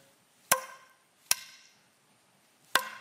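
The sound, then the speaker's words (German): Three sharp, resonant hammer blows ring out at uneven intervals as fence boards are nailed on, each striking wood with a crisp crack and a short ringing decay, with no voices. “Zaunlatte für Zaunlatte annagelt mit kräftigen Schlägen.”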